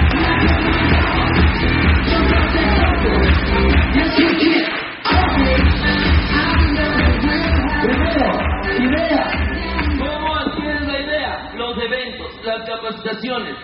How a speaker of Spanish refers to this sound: Vamos a un fuerte aplauso a todos los latinos y familias.